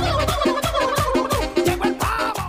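A turkey gobbles in a rapid, rattling burst of warbling calls, loud, repeating several times in quick succession with no talking over it.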